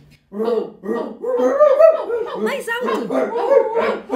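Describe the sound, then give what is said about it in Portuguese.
Several children's voices imitate a dog barking, a rapid run of overlapping, playful barks mixed with giggles, loud, and an adult briefly calls out over them. “Como é que é o som de latido?”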